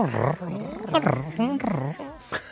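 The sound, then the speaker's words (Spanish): A voice imitates a cat's purr with a few drawn-out, rolling, growly sounds that rise and fall in pitch, fairly loud, with nothing else around them. “el ronroneando. El ronroneo.”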